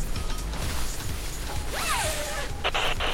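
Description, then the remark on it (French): Rustling of stiff protective clothing as a forensic identification officer suits up at the door of an apartment in Paris where a body was found, with a quick zipper pulled near the end. No one speaks; there is a low hum in the background. “Nous sommes arrivés sur les lieux, face à la porte palière de l'appartement où le corps a été découvert, et nous allons nous équiper afin de ne pas polluer la scène de crime.”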